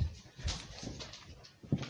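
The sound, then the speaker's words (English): A video game wolf makes a few soft, short whimpers spaced out over two seconds, quiet, with no one talking. “I see um a wolf.”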